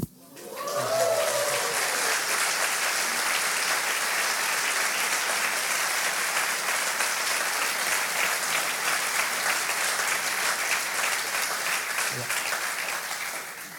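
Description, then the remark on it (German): A Baptist audience breaks into sustained applause at the mention of a baptism: a dense, steady wash of clapping that starts abruptly and holds at an even, loud level for over ten seconds before tapering slightly at the end. “Also das passiert, wenn du in einer Baptistengemeinde von Taufe redest, kriegst du sofort Applaus.”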